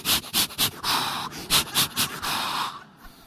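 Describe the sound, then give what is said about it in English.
A person performs patterned Lamaze breathing: a few quick, sharp puffs followed by a longer drawn-out exhale, repeated twice in a steady hee-hee-hoo rhythm with no talking. “I, do, I went right to Lamaze breathing.”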